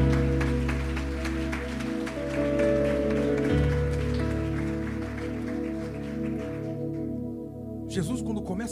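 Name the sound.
audience applauding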